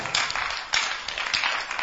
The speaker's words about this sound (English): and those who are clapping may the lord bless your clapping more